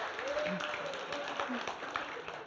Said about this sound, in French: Je propose qu'on l'applaudisse.